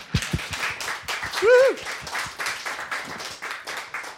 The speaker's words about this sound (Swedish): Och det är inga mindre än Stöd och Resurs. Välkommen hit med en stor applåd. Vad kul att ni är här.